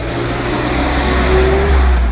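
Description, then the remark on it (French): A garbage truck with its refuse collectors rolls past with a loud, steady, deep engine rumble and a low whine that climbs in pitch as it goes by. No one speaks. “bonjour messieurs les éboueurs.”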